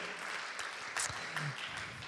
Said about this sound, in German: Jawohl, jawohl, jawohl. Ihr dürft noch weiter applaudieren, sind noch nicht da.